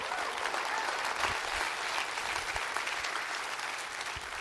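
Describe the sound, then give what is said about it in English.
A church audience claps their hands for Jesus in a dense, steady wash of applause that stays fairly loud and even throughout, with no voices rising above it. “Come on, clap your hands for him.”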